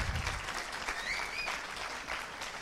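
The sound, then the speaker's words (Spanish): An audience of believers bursts into steady applause during a bilingual Spanish-English sermon on the resurrection, dense overlapping claps sustained at a fairly even level throughout, with a faint whistle or cheer rising briefly in the middle. “Solo los que creyeron aplauden.”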